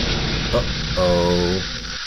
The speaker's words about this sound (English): When the top opened, a big spray of orange soda shot up high into the air. It went up, up, up into the clouds.